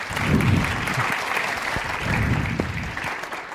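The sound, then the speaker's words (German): Audience applause welcomes a panel guest from Night Fever Würzburg, a steady wash of many hands clapping at moderate loudness, with a few louder individual claps popping out and no one speaking. “Da darf man mal einen Applaus kommen.”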